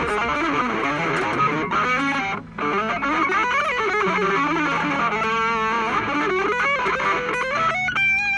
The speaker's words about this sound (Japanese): ギター単体で聞くと雑でしょ私も、まそんなんただただ早く弾くだけなんですもうあんまりピッキングの。雑さとかもあんま気にせずもうやりたい放題感じです